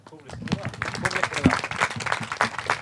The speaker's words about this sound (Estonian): aga omalt poolt tänan kõiki paneliste ja tänan publikut, et teeme võib-olla panelistidele aplausi ka.